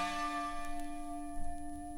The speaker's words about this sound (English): Oh man, I love that little that bell at the end. That's so cool. So cool.